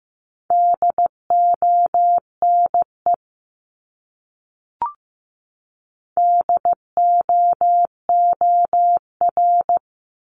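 Steady mid-pitched Morse code beeps at 15 words per minute tap out one of the 500 most common words in quick dots and dashes, then stop for a pause broken by a single soft click before a second run of beeps.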